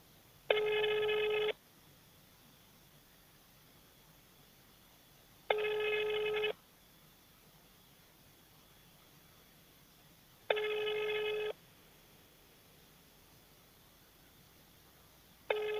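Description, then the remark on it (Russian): A telephone ringback tone repeats four times, each tone about a second long with roughly four seconds of quiet between them, steady and unanswered, with no voices. “Номер не отвечает.”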